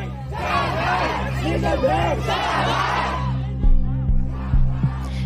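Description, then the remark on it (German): A large crowd of protesters in Beijing, China, holding up blank sheets of paper, shouts and chants together in dense, overlapping voices for about three seconds, then the roar thins out, broken by a few low, thumping bumps. “Blank pieces of paper held aloft by protesters like here in Beijing, a silent rejection of censorship.”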